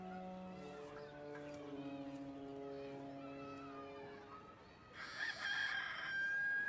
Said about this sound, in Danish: Og så galer halen, eller så galer hanen der, ikke?